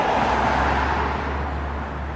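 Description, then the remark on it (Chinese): Steady wash of congested city traffic at Tianfu Square: a broad, continuous rumble of engines with a low hum underneath, buses, bicycles, motorbikes and taxis blending into one constant roar, with people crossing the road on foot and no voices. “现在我们在天府广场正在录制，可以看见车流非常的拥堵啊，公交车、自行车、摩托车，然后 taxi，还有各种各样的交通设备混搭在一起的声音，还有人过马路的步行”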